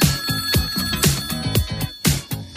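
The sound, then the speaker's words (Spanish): A telephone rings in quick, repeated bursts of bright electronic tones with a steady rhythm, loud, with no one talking. “El teléfono también es el mismo, confirmamos.”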